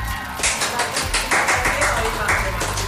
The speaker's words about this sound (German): Normalerweise erklingt dann Applaus an dieser Stelle.